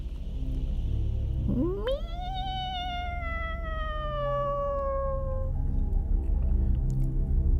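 A cat in the dark lets out one long, drawn-out yowl that swoops up sharply and then slowly sags in pitch for several seconds, loud over a low, steady background rumble.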